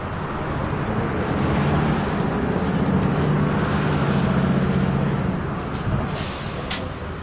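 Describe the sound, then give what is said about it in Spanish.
A steady, loud engine rumble and road drone fill the interior of a moving tourist bus, with a low humming tone that swells slightly midway and no voices. “Philip, reportero de radio como es, ha grabado las voces que se oyen en el autobús”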